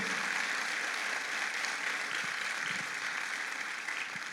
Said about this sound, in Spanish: aplauso al Señor Jesús, por favor.